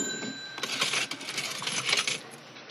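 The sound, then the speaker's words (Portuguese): Coins clink and jingle repeatedly in bright, metallic bursts, like change being handled at a cash register, fairly loud with no voices over it. “E que quando falam connosco algo estruturado e significativo, ouvimos apenas moedas, moedas, notas, notas, moedas?”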